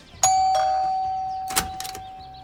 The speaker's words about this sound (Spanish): Un día, un hombre de traje oscuro se plantó delante de una casa y tocó el timbre.